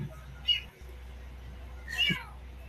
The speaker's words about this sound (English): Oh my goodness. She found a kitty. little white kitty. oh my goodness, that's a calico, isn't it? She said, Mom, I brought home a kitty.